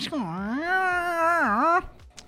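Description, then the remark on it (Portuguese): A voice imitates a creaking door hinge with one drawn-out, wavering squeak that dips and rises in pitch for almost two seconds, fairly loud, then stops abruptly. “Bate na porta, a criança tá meio ressabiada, mas a porta, a dobradiça faz um...”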